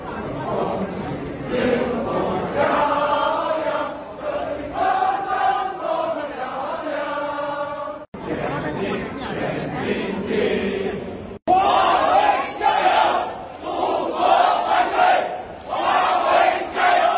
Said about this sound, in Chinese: 大家刚刚听到的是九月二十五日晚，在深圳宝安国际机场迎接孟晚舟的热情群众在机场合唱的歌曲《歌唱祖国》。